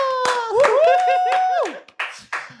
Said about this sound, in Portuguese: Aplausos! Aplausos!